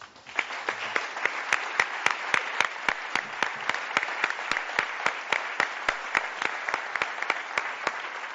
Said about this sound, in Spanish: Por eso quiero pedir un fuertísimo aplauso para todos ellos.